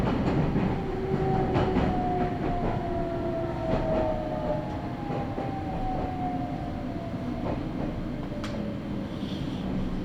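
A Nagoya Railroad (Meitetsu) local train running from Agui to Utsumi in Japan rolls along with a steady, loud rumble, wheels clacking over rail joints at irregular intervals while a faint motor whine glides underneath. No voices.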